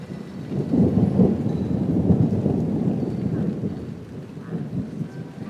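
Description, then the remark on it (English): Low, sustained rumbling of thunder rolls through steady rainfall, swelling loudest early on and easing slightly before a second surge near the end. No voices are heard. “Yeah, I have actually predicted that that would arrive just at about the time you arrived. Have you, have you seen the weather radar?”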